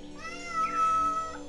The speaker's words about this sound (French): Il y a le chat qui vous dit bonjour.